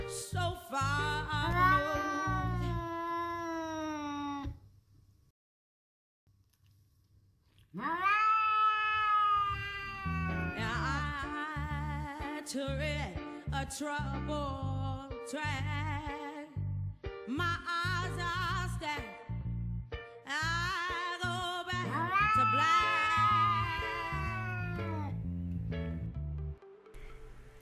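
An angry young female cat meows and caterwauls in long, wailing, pitch-bending yowls, loud and nearly continuous, with one brief quiet pause early on before the howling resumes.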